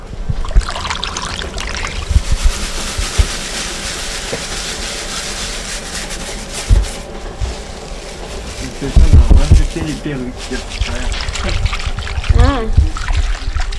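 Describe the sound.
Water pours steadily into a tub being filled for mixing with shredded paper, with a continuous rushing, trickling hiss, while voices murmur and call out briefly in the background.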